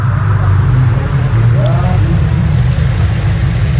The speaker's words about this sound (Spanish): Hoy les mando la postal sonora callejeando por Dubrovnik, en Croacia.